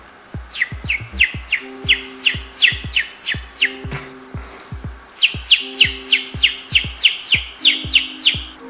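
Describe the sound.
Bird chirping imitated with the tongue: a quick, steady run of bright chirps, each with a faint click, pausing briefly midway before another burst. No talking.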